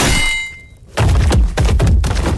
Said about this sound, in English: The boy leapt out from his hiding spot and smashed the fire poker over Tobias's head, dropping him instantly.